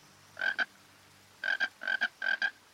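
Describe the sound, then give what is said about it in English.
A frog croaks in short doubled bursts, four calls spaced by pauses, clear against a quiet background with a faint low hum. “You got the answer, Mr. Frog?”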